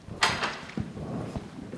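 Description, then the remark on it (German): The door to a church bell tower being unlocked and opened by the pastor: a sharp rattling click of the lock, then a couple of dull, heavy wooden thuds as the door moves, with no voices. “schließt die Tür zum Glockenturm auf und steigt die steile Holztreppe nach oben in den Glockenstuhl.”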